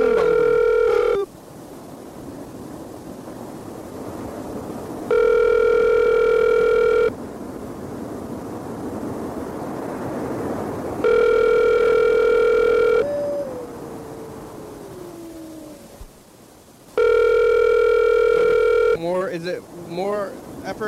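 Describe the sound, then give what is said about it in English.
An outgoing phone call rings unanswered: four steady ringback tones, each about two seconds long with longer pauses between, over a faint hiss, and a brief burst of voice at the end. “I think if you were driving, you'd be answering the phone.”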